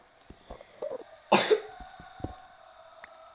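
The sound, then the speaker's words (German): A harsh cough from a person having a coughing fit bursts out after a few small throat sounds, followed by a quieter hoarse rasp, with a faint steady hum underneath and no talking. “Sorry, wenn ich manchmal huste, aber ich habe halt auch gerade gefühlt Hustenanfall, also nicht wundern.”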